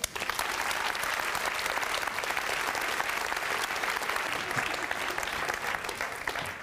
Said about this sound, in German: Begrüßen Sie mit einem quicklebendigen Applaus Gian, Gian Domenico, Domenico Borasio